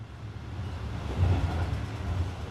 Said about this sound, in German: Wir sind inzwischen im Zug unterwegs nach Frankfurt. Beim Einsteigen herrschte großes Gedränge. Der Plan, gleich einen regulären Sitzplatz zu ergattern, ging nicht auf.